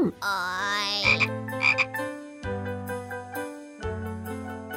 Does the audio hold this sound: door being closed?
no